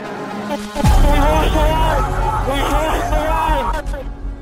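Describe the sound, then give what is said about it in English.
A large crowd of protesters waving banners and Confederate flags outside the east wing of the Capitol on a January morning roars in a dense, continuous hubbub of overlapping shouts and voices outdoors, loud, with a heavy low thump near the start and occasional whoops rising above the din. “This crowd outside the east wing of the Capitol will soon overwhelm the police barrier.”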